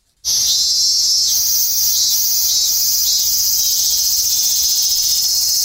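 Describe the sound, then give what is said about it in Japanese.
A loud, sustained cicada chorus of robust cicadas (minminzemi), shrill and continuous with slight pulsing, starting abruptly and droning on without any voices. “正解はミンミンゼミ”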